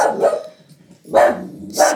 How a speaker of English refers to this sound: you got a little pit bull she's a good guard dog